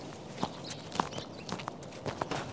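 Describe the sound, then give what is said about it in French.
Footsteps walking at a steady, unhurried pace, each step a soft, distinct thud, moderately quiet, with no talking over them. “Alors il cueille deux citrouilles et il retourne vers la maison.”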